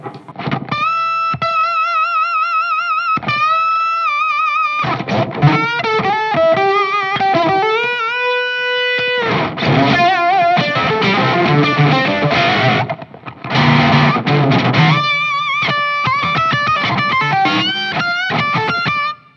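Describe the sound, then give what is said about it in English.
An electric guitar played through a bright, distorted effect set to its bright setting rather than the mellow one, with sustained notes and bends giving way to busier strummed chords, loud with no talking. “you don't want the, the mellow setting. You just want the bright setting.”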